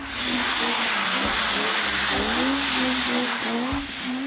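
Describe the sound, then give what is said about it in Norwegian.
A rear-wheel-drive car drifting, its engine droning and rising and falling in pitch while the spinning tires hiss and squeal continuously for the whole few seconds. “Vi må ha en motor som gjør at vi greier å bryte grepet, at vi spinner.”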